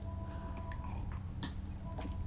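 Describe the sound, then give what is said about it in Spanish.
A teaspoon stirring hot, bitter, unsweetened coffee that has cooled slightly in a cup, giving a handful of light, irregular metallic clinks over a low, steady background hum, with no one speaking. “ahora sí voy a tomar la cucharita para revolver el café que se ha refrescado algo, pero sigue caliente, amargo, sin una gota de azúcar y siempre, siempre necesario.”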